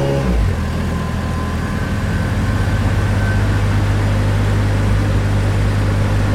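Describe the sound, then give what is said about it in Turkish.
The engine of an old car hums steadily, a low rumble with a brief shift at the start as the car pulls into the space in front of an apartment building in Etiler while snow covers the roads. No voices are present. “Benim emektarı kolayca binanın önündeki boşluğa çektim.”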